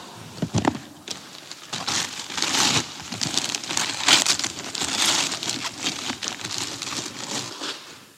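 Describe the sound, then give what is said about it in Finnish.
Wrapping paper crinkles and rustles continuously as a gift package is unwrapped, with sharp crackling bursts and tearing sounds over several seconds and no talking. “No avataan sitten, istutaan tähän alas ja kurkataan, että mitä siellä oikein on sisällä.”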